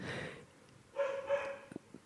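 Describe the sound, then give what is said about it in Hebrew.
A female dog barks in a few sharp, excited bursts: two strong barks close together, then a couple of quick short yips as it trails off. “הכלבה שלי מאוד מתרגשת מהתוכן כן.”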